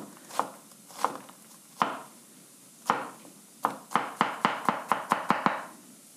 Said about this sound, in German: Gut, ich gehe zum Brett und wir schneiden jetzt äh, Würfelchen aus den Zwiebeln. Also ich schneide parallel zum Brett ein bis zweimal rein, je nachdem wie groß die auch sind. Dann der Länge nach runter. Würfel und oh, dann kleine Würfelchen.